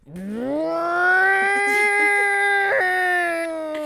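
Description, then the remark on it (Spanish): A voice imitates a small, newly bought blender with a loud, steady droning hum that rises in pitch at the start, then holds evenly for several seconds before easing off. “Además, que la, licuadorcita esa hace ruido como que fuese un taladro industrial.”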